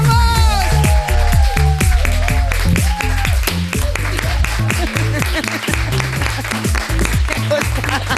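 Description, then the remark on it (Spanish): Loud, steady audience applause for actor Rodrigo Santoro fills the whole stretch, a dense wash of clapping blended with upbeat band music playing over it, with no talk. “Y fuerte el aplauso para Rodrigo Santoro.”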